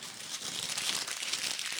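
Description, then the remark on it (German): Continuous crinkling rustle of a plastic or paper wrapper as a piece of cake, a cinnamon bun, is unpacked, a bright, crackly texture with small irregular bursts, moderately loud and steady throughout with no voices. “Das, ähm, während wir hier weiterreden, packe ich mal, mal ein Stück Kuchen aus. Ja, bitte. Du wirst, du wirst wahrscheinlich ich freue mich ja über bisschen, dieses Rascheln immer.”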